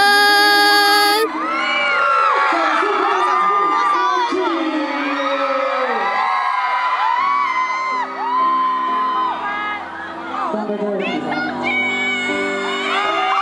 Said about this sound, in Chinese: 追星族来到西门町，绝对不能错过的就是签唱会啦！尖叫声！